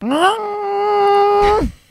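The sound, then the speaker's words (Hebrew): Someone imitates with their voice the horn of their old Beetle car, which sounded like a huge full-trailer truck horn: a single long, steady, loud honk that rises at the start, holds one low pitch, then drops off with a breathy end. “דווקא היה לה צופר של פול טריילר כזה, של uh, ענק, אולי אפילו דאבל טריילר.”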